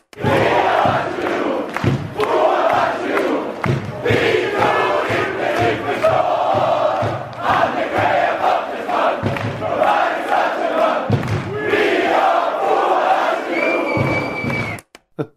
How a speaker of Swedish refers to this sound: Och det är ju skäl nog att lyssna på en av de bättre hejaramsor som har skrivits som en allsvensk spelare. Så här lät det för några år sedan i Östersund.